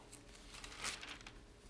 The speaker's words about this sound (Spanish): Déjenme llegar porque me pasé, me pasé de, de hojas. Segunda de Reyes, capítulo 2.